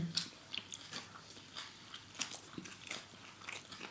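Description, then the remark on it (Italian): Someone chews a mouthful of focaccia, soft wet smacking and crackly bite sounds repeating irregularly at a low level, with no talking. “Questa focaccia è fantastica. Forse un po' salata.”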